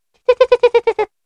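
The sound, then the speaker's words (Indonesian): A voice imitates a shrill, high-pitched shriek in seven quick, evenly spaced, loud bursts, with no other sound around it. “tapi itu bener-bener tau kalau kayak suara kalau di film-film mungkin ya hmm. yang hmm. kayak melengking melengking gitu banget gitu uh, tapi gue gue berpikir suara burung kali ya yeah.”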